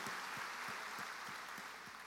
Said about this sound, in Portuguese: Aplauda o Senhor por isso.